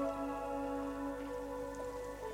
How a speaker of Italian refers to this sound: La pioggia. Accetto che è predestinato che piova.